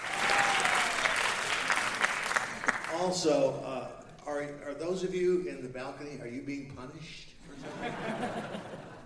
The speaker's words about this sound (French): Pour qui sont ces applaudissements À qui appartient cette belle voix qui se moque des gens au balcon à Big John, bien sûr.